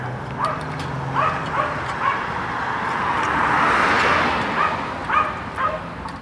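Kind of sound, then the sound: animal, small dog yapping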